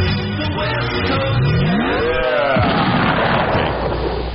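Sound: explosion sound effect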